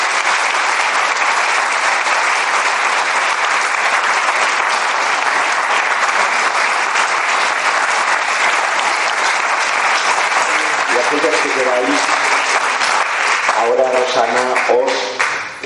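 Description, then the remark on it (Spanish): Sustained, loud audience applause fills the whole clip, a dense steady clatter of many hands clapping, with faint voices and cheers surfacing near the end as it starts to fade. “Bueno, pues si os parece bien, yo creo que merece ahora sí un aplauso rotundo y aquellos que queráis.”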